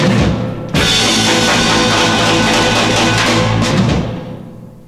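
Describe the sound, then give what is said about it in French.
A loud burst of 1960s French pop with a vintage recording sound from the microphones and studios of that era, cutting in abruptly after a brief lead-in, playing full and dense for a few seconds, then fading away. “le … des années 60 avec le son euh, bien vintage, avec euh, les micros de l'époque, euh, les studios de l'époque”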